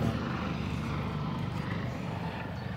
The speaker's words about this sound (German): Die warten mal vielleicht, bis der Flieger vorbei ist. Helikopter, aber ja.